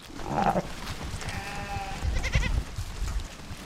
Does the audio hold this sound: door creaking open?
no